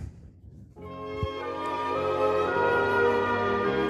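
After a short quiet moment, a recorded song swells in with full, sustained harmonic instrumentation that holds steady and fairly loud to the end, with no talking over it.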